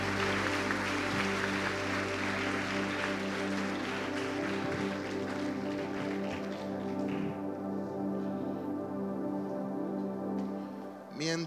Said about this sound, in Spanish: En el nombre de Jesús y toda la iglesia dice, y mucho más fuerte, dale un fuerte aplauso al Señor.